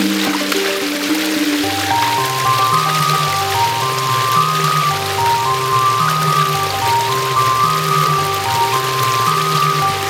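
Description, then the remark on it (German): A steady babbling of a brook running between vineyards down a concrete channel continues, with a simple melodic tune playing over the rushing water throughout. No one speaks. “Ja, das plätschert ganz nett. Da kommt echt der Bach hier zwischen den Weinbergen durch so eine Betonwanne runtergeplätschert.”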